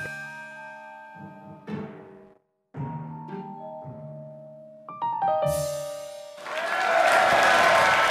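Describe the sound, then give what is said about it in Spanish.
A string of bright, sustained musical tones and chimes plays, then gives way to a loud burst of audience applause and clapping that fills the last couple of seconds. “Yo les agradezco esos aplausos.”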